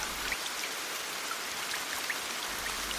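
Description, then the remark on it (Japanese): Rain suddenly starts and patters down steadily while the sun is shining, a dense hiss of drops with occasional sharper taps standing out, even in loudness throughout, with no voices. “すると急にそれから雨が降り始めた”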